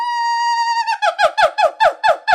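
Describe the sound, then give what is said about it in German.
A monkey calls out with a long, steady high-pitched hoot, then breaks into a rhythmic run of about seven loud, sharp yelps, with no talking. “Dazu gehören Beobachtungen an Affen”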